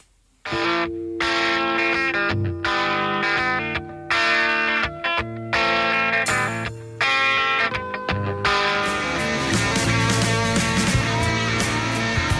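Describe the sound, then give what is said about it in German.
A rock song with distorted electric guitars and steady drums plays loudly and continuously on the radio after a brief silent start, the mix growing denser and brighter toward the end. No one talks over it. “Jetzt aber erstmal ein bisschen Musik, kurz durchatmen und einen Schluck Wasser trinken.”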